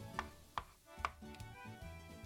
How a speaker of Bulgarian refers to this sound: След което към тях добавям гъби, но не манатарките, а печурки. Това ястие ще има страхотен аромат на края на горски гъби. Нарязвам някои от тях много наситно, други пък оставям на филийки